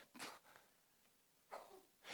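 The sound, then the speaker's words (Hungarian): A sharp, breathy sneeze bursts out, followed a moment later by further short puffs of air and sniffing noises in otherwise quiet surroundings. “egészségedre.”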